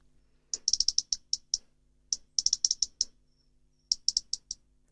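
A European robin on the ground gives its ground-predator alarm: rapid bursts of sharp, dry ticking clicks, like two pebbles knocked together, repeated in quick clusters of four to six, clear with no voices.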